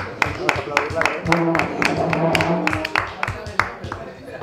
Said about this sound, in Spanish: puedes venir aquí un segundo? Un aplauso para ella, va a ver.